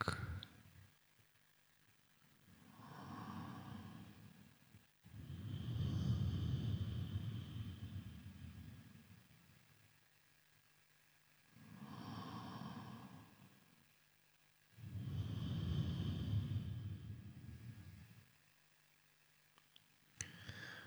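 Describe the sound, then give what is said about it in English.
Slow, soft small breaths during a guided breathing exercise, about four gentle breaths in and out separated by short quiet pauses. No one speaks. “Continue breathing, small breaths just feel the slight expansion and contraction of the trunk.”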